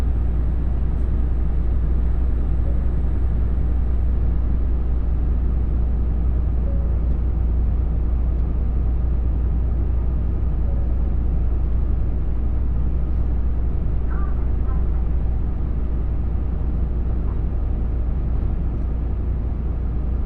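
The Limited Express Nanpū No. 20 on the Dosan Line, bound for Okayama, rumbles steadily as it pulls away and runs on between Oboke and Tadotsu. A deep continuous drone is heard from inside the carriage, with no one speaking.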